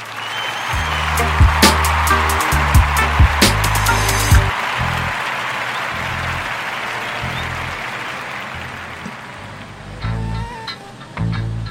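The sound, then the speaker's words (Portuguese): A round of applause for the listeners: dense, crackling clapping that runs steadily for about twelve seconds, with a few sharper bursts and low thumping underneath, fading slightly toward the end. “Muito obrigado, salvo de palmas para os ouvintes.”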